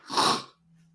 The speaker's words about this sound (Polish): nie, nie kichamy. Znaczy muszę opanować to, bo inaczej to już nie tylko piosenek nie będziecie słyszeli, ale i życia całego.